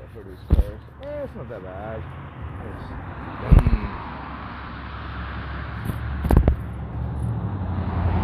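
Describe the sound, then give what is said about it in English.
A car passes outside, its broad road hiss swelling and lingering, with a few sharp thumps along the way and a brief voice murmuring near the start. “always trip out on the cars that drive by every day.”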